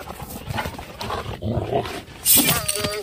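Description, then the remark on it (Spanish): A wild dog that the player is fighting in a video game growls low and rough over several seconds, the snarling swelling and fading before a sharper, brighter burst near the end. “Cuando gruñe el perro es cuando tú sabes que lo tienes que matar, miren.”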